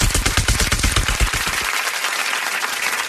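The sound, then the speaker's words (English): A helicopter landing in a canyon: its rotor beats in a loud, rapid chop, then the low thumping drops away and leaves a steady rushing, whining hiss as it settles. No voices. “an helicopter landing in the canyon.”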